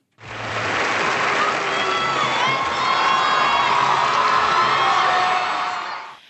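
A large audience at an award ceremony boos loudly and steadily for several seconds as a 19-year-old goes on stage to accept a special prize, a dense roar of many voices with scattered shouts and whistles rising above it, fading out at the end.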